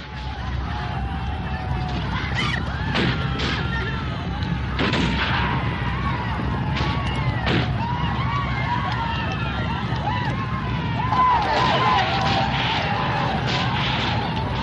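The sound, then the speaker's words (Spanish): A chaotic desert battle din: scattered sharp rifle shots crack from Arab horsemen with rifles and scimitars cutting down fleeing Turks, over a constant low rumble of galloping hooves and the shouting of many voices, loud and unbroken throughout. “Los turcos huyen en desbandada mientras los jinetes árabes se colocan a los lados diezmándoles con fusiles y alfanjes.”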